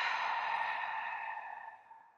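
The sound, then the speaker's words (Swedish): A long, slow exhale of breath, a soft airy rush that gradually tapers off over about two seconds, with no talking. “Andas ut.”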